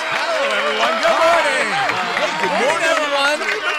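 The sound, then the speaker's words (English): A lively crowd of Flash Dads cheers and calls out in overlapping, excited bursts, with scattered clapping mixed into the steady, loud hubbub, as they greet and high-five students arriving at school in the morning. “The Flash Dads cheer, clap, and high five them all the way into class.”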